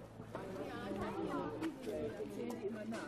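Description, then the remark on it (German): A busy crowd of schoolchildren's voices as many pupils play outside in a school playground, some eating watermelon, overlapping in continuous chatter and shouts, a lively steady din with no single voice standing out. “Draußen ganz viele Schüler und die spielen. Machen Krach, essen Wassermelone.”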